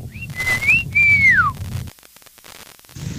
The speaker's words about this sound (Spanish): hoy es día del silbido.